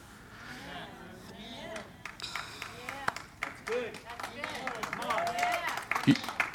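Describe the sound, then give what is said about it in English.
Scattered, uneven clapping from a church audience starts sparse and slowly picks up, individual claps popping out over a low murmur of voices. “You're, some of you are warming up to it. Some of you are like, well, I'm not sure yet. I'm not sure if that's applaudable yet.”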